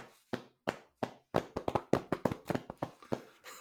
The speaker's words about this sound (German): Mach mal den linken Arm nach vorne, den rechten Arm nach vorne. Jetzt überkreuzt du die Arme und jetzt klapp, klopfst du dir selbst auf die Schultern.